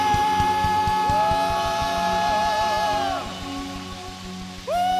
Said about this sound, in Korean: 이미 승리하신 예수 그리스도께 우리가 할 수 있는 최고의 영광과 찬양의 박수 승리의 함성